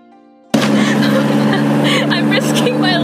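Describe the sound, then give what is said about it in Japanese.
A tuk-tuk engine bursts in suddenly and drones loudly, a steady rattling motor rumble with rushing wind noise throughout a ride to a bus station in Bangkok, Thailand. “ということで、チェンマイに行くために、えー、バンコクのバス停からチェンマイまで、なんと、夜行バスで12時間かかりましたが、えー、そこのバス停に行くまでの皆さんもきっとおなじみ、トゥクトゥクに乗りました。”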